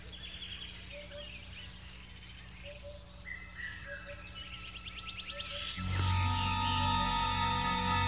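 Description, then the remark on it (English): Birds chirp and insects buzz in a quiet outdoor scene, then loud, harsh vervet monkey eagle alarm calls, warning of danger from the air, suddenly burst out and continue in a raucous chorus to the end. “a call that means danger from the air.”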